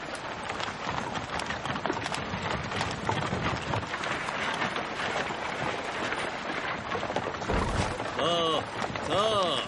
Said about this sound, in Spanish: La caravana con el indígena a la cabeza cruza un río.